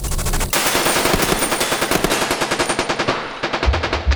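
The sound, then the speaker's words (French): Police officers empty their magazines at a gangster in loud, rapid bursts of automatic gunfire. The shots form a dense, sustained volley that blurs into continuous rattling before a few final heavy bangs. Intense, with no voices. “Leur réponse ne sait pas attendre. Ils vident leur chargeur.”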